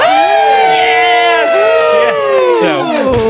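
A live audience of about 700 people at Balticon cheers and shouts hello all at once, many voices overlapping in a loud, sustained roar of whoops that holds steady for a few seconds before trailing off.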